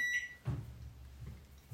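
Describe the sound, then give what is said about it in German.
A microwave's button panel gives a single short, bright electronic beep, followed by a soft thump and a low steady hum as the oven starts running for 20 seconds to soften butter. “Ähm, ich bin ein bisschen confused mit dieser Mikrowelle.”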